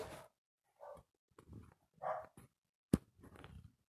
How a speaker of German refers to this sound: Vielleicht hört ihr es. Der Hund. Aber ja, tut mir leid, wenn hier so ein paar Geräusche entstehen.